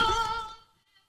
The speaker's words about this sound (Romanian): e telefonul domnului Popescu, dacă vă întrebați ce s-a întâmplat